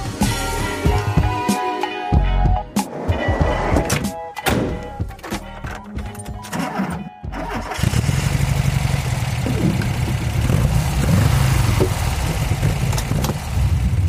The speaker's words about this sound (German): für alle, die gerade nur zuhören und nicht zuschauen, dieses wohlige, brummende Geräusch im Hintergrund, das ist mein Bulli. Und zwar fahre ich hier gerade auch tatsächlich durch Hamburg.